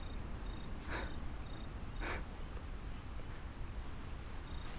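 Steady insect chirring fills a quiet, cold night forest, with high continuous cricket tones and two brief brighter rustling bursts early on, no voices present, at low, even volume throughout.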